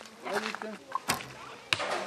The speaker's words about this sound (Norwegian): I dag skyter de pil og bue.